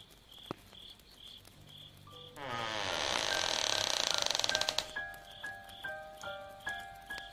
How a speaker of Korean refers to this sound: 방문이 조금씩 열린다.